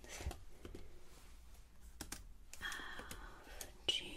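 Soft typing on a computer keyboard during a luxury hotel check-in, a steady patter of light key clicks with a few sharper taps, quiet and intimate with no one speaking.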